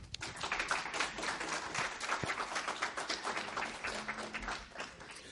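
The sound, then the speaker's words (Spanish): An audience breaks into sustained applause to welcome a speaker, many hands clapping in a dense, steady crackle that stays fairly loud throughout without fading, with no voices standing out. “Eh, os pido un fortísimo aplauso.”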